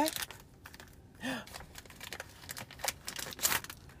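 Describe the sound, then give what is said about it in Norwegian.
Paper crinkles and rustles in irregular bursts as a wrapped gift, a microphone for an iPhone, is opened, with a brief soft voice sound partway through. “Ja, det var så du hadde pakka den eh, jeg tenkte at det kunne vært noe du hadde fått.”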